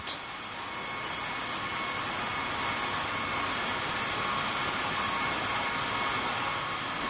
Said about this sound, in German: Das ist eine Seilsäge mit einem Diamantseil, wird der Stein geschnitten. Ja? Immer waagrecht, kann man alle Höhen schneiden, Kurven, Kreise, wunderbar.